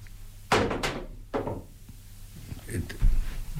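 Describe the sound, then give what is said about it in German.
A large die tumbles across a tabletop, making a few irregular, hollow thuds and knocks before coming to rest with a final heavier clunk. “Wir fragen den Würfel.”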